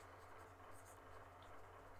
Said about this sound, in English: If you hear a pencil, that's because I am writing this down.